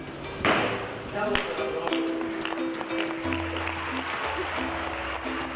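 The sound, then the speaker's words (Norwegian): A couple of sharp wooden knocks as the French foreign minister bangs the gavel on the table when agreement is reached at a climate summit, then a crowd breaks into sustained applause mixed with murmuring voices. “da det ble enighet og den franske eh, utenriksministeren dunket klubben i bordet og sa vi har en avtale, we have a deal.”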